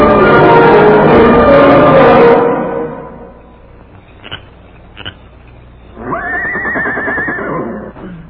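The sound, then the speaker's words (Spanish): A horse, Tiquio's horse, whinnies loudly and shakily, falls quiet with a couple of faint knocks, then lets out a second, higher, wavering neigh. “Ah, con que aquí viniste a dar tu caballo mondado correlón este.”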